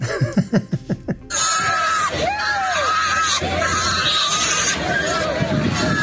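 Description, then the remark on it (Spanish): A short burst of voice gives way to loud, shrill pig squealing at the scene of a crashed livestock trailer in Tabasco, Mexico, with high rising-and-falling cries piling up over a harsh, noisy din that continues steadily to the end. “No, ahí sí te hicieron, ahí sí te hicieron chillar el cuchín”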